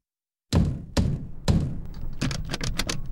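Impatient pounding on a door: three heavy, booming thumps spaced about half a second apart, then a quicker flurry of lighter knocks. No one speaks.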